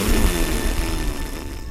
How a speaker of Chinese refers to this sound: 原来是甲在棉被里放屁。